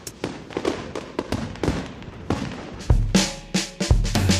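A fireworks sound effect: a rapid string of sharp crackling pops, followed by several louder booming bangs with low rumbling tails, no voices present.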